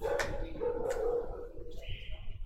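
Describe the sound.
A dog gives two sharp barks about half a second apart, with people talking in the background and a steady high tone near the end.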